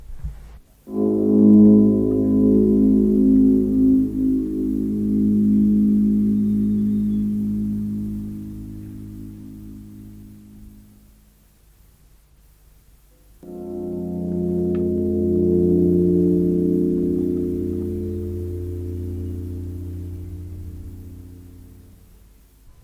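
Two long, dense harmonic drones made from harp sounds transformed with their attacks removed, the notes closely linked and fused into bell-like, blended overtones resembling hinge or bell tones; the first swells and fades over about ten seconds, then a second begins after a brief gap.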